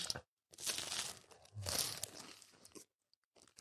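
Loud crunching as someone chews on hard frozen ice cream during a timed ice cream eating challenge, in two long bursts of crackly bites separated by short pauses, with faint chewing trailing off at the end.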